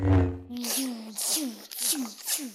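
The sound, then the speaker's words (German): A voice imitates a lightsaber switching on: a low buzzing hum, then several hissing swooshes with falling pitch in a quick, fairly loud rhythm. “Zusätzlich haben die Laserschwerter dieses ganz bestimmte Brummen und Klingen, das jeder Star Wars-Fan kennt.”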